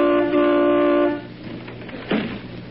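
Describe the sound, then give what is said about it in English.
A car horn blares in one long, steady honk lasting about a second, loud, then cuts off, leaving quieter background noise and a brief muffled sound. The horn is tooted outside a house to see if someone is home. “well, toot the horn. We'll see if he's home.”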